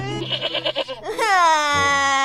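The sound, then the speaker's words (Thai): A goat bleats in a shaky, rapidly wavering burst, then gives a long, loud, drawn-out cry that slowly falls in pitch, with no talking over it. “โอ้ยอย่าร้องอย่าร้องอย่าร้อง นั่นร้องทั้งคนทั้งแพะเลยทีนี้”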